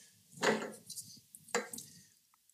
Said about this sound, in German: Ich fange schon mal an mit Einschenken.